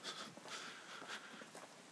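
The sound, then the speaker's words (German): Soft shuffling footsteps scuff along in the background at an uneven pace, a few dragging steps in quick succession, faint, with no talking over them. “Ich hoffe, dass äh, das Gelatsche hier im Hintergrund hat euch nicht zu so sehr gestört und immerhin ist kein Krankenwagen vorbeigefahren.”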